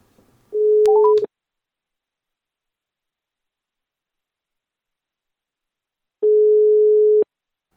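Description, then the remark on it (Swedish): A telephone call being placed to someone in Bjuråker, Hälsingland, Sweden: a steady low telephone tone with a few quick rising dialing beeps over it, then about five seconds of silence before a single one-second ringing tone sounds. No one speaks. “Jag har ringt upp”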